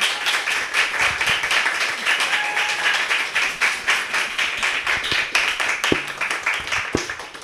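A crowd applauds a guest, some people standing, many hands clapping in a dense, continuous patter that holds at a fairly even loudness throughout, with a few sharper individual claps standing out near the end.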